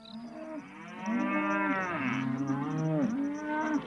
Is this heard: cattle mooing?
yes